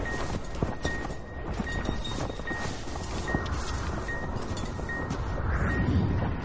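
Horses' hooves clip-clop in an uneven walking rhythm as a white horse and a black horse are led toward a stable entrance during a snowstorm, over a steady windy hiss with no voices.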